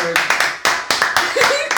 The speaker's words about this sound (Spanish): Y ahí viene que lo lograron. la gente trabajaba bien. un aplauso para el total.